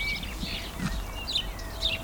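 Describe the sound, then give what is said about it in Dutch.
Many different bird species sing and chirp outdoors at the Natuurlijk huis, overlapping with varied high whistles and short twittering bursts, fairly soft over a low ambient rumble. “Ik hoor heel veel vogelsoorten, veel meer dan bij mij in de tuin in ieder geval.”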